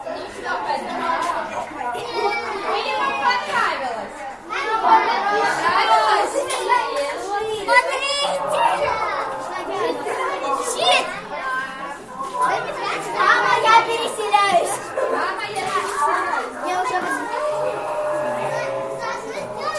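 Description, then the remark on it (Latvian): A crowd of excited children plays and chatters in a colourful, eclectic, fully habitable art installation by Sibela Kavallī Bastos at Rīgas cirks (Riga Circus), their high voices overlapping in a constant lively din, with occasional shrieks rising above the steady, reverberant hubbub. “Bērni sajūsmās piekdemi ņudzēja pa krāšņo eklektisko un pilnīgi apdzīvojamo instalāciju - lūks piedzieni.”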